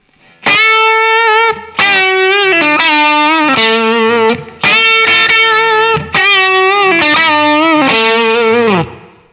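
distorted electric guitar

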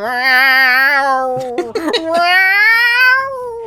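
animal, cat yowling

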